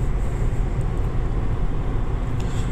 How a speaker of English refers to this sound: anyways, yeah, I am in the mobile car studio. I'm going down the road.